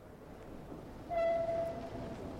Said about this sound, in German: Musste jetzt die Eisenbahn benutzen.